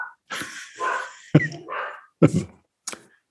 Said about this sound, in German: Hm, der Hund im Hintergrund ist völlig in Ordnung, dem geht es gut, der wird artgerecht gehalten. Also, liebe Zuhörerinnen, macht euch keine Sorgen.